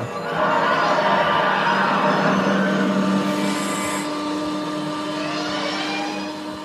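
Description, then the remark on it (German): A sci-fi time machine car effect: a loud, continuous electronic whirring hum with steady droning tones and a rushing, engine-like roar, sustained for several seconds with no one talking. “Auch der Sound von dem Wagen.”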